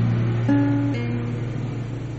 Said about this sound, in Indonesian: Oke okay, okay, guys. Okay. Berisik suara motor. Iya.